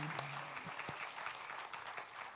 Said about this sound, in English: Come on, clap your hands to the Lord. Amen, amen, amen.